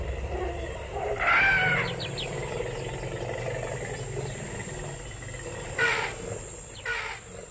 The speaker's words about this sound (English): This was once marshes and wetland, where you now hear the wail of alarms and the thumping beats of gqom from passing cars. There were once actually elephant calls.